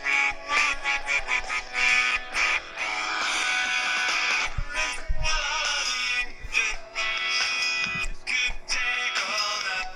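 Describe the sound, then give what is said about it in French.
Loud, nasal duck-like quacking runs almost nonstop, rising and falling in choppy bursts with brief gaps, as if a duck were trying to sing. No one talks. “On dirait un canard qui chante.”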